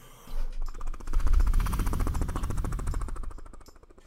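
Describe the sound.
A voice imitates a helicopter with a rapid, steady chopping rumble made by the mouth, fairly loud, lasting a few seconds before fading slightly at the end.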